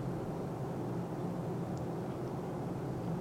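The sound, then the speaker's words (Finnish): A steady, low rumbling drone with a broad hiss fills the whole stretch, unchanging in level: the constant roar inside an airplane cabin in flight. No one speaks. “Nyt ei olla markkinoilla, mutta ollaan kumminkin jossakin paikassa, jota yleensä kutsutaan lentokoneeksi.”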